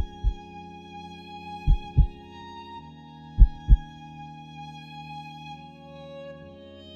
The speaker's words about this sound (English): Her heart beat gently, like a tiny drum my heart beat in rhythm.